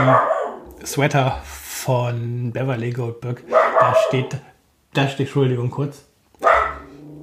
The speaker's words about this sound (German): Das ist der Hund, der da gerade irgendwas draußen hört. Sonst war es die Katze, die stört, jetzt ist es der Hund.